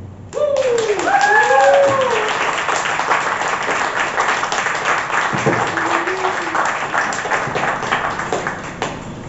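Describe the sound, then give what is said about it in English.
A crowd applauds steadily for several seconds, dense overlapping claps, with a few brief whoops or vocal calls rising over the clapping near the start. “Y'all put your hands together one more time for Tooey.”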